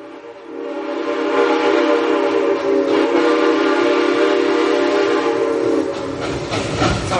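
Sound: train horn sound effect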